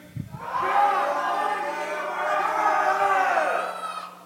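An audience lets out one loud, sustained scream together on a count of three, rising sharply at the start and holding steady for about three and a half seconds before fading.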